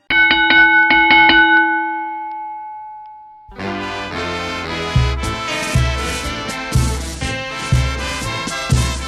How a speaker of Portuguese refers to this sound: Ficha técnica e depois do gongo sobe o hino do Corinthians.